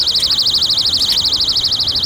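A phone alarm rings with a steady, rapidly warbling high-pitched tone, pulsing evenly about a dozen times per second, loud and continuous with no voices over it.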